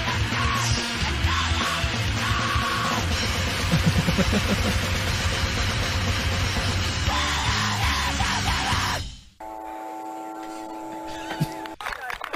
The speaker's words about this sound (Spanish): Los aplausos. Qué bárbaro.